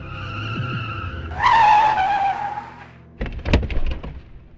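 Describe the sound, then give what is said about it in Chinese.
A police car's engine hums low, then tires let out a loud, wavering squeal as the car skids while swerving to avoid a dog in the middle of a mountain road, followed by a burst of jolting thumps and rattles before the sound fades. “为了躲路中央的一条狗，差点把车开下山路。”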